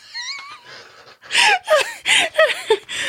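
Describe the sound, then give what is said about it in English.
Heavy, rasping breaths right up against the microphone, a rapid run of loud wheezy huffs with a faint voiced edge, following a brief quieter breathy sound at the start. “Why are you breathing like a Sleestak into the microphone?”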